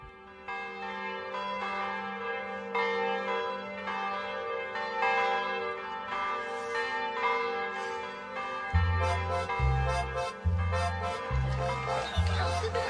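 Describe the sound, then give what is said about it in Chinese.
Church wedding bells ring on and on, their layered tones overlapping and shimmering. In the final seconds, low, steady pulsing beats join beneath the bells. “终于，他们的脑海里响起了婚礼的钟声。”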